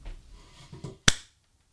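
A single sharp hand clap rings out after a moment of soft, low rustling, then decays quickly into silence. No one speaks.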